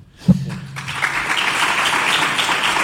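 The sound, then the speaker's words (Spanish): A brief low thud, then applause from a group of people rises and continues steadily, a dense patter of many hands clapping, from the audience in the press room of the Real Betis Balompié sports city as sporting director Ramón Planes is about to speak. “Pues ahí están esos eh, aplausos del público que está dentro de esa eh, sala de prensa de la ciudad deportiva del Real Betis Balompié cuando va a hacer uso de la palabra el director deportivo Ramón Planes.”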